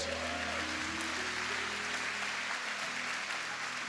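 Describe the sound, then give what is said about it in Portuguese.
An audience applauds in praise of God after a prayer, a steady, dense wash of clapping that holds at an even level for a few seconds, with a faint sustained musical tone underneath. “Quem crê, diz amém, dá uma salva de palmas que Ele é Deus.”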